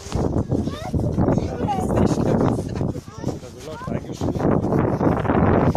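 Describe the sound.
Constant low rumbling wind buffets a mobile phone's microphone, loud and gusty throughout, with a person's voice talking underneath the roar.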